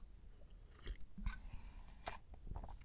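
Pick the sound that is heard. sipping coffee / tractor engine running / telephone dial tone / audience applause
sipping coffee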